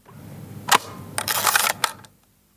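A sharp Hasselblad camera shutter click, then a raspy mechanical film-winding crank lasting about half a second, ending with another crisp click. No one speaks.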